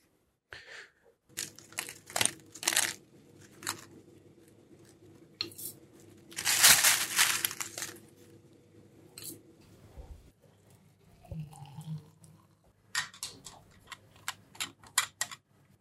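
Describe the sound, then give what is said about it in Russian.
Boiling water poured over tea in a glass with a mesh infuser: a sustained splashing hiss in the middle, surrounded by scattered sharp clicks, crackles and taps, with a low steady hum underneath and no talking. “Окей, эти звуки говорят нам о том, что чай залит кипятком и готов к тому, чтобы его чтобы подождать, о господи, готов к употреблению практически.”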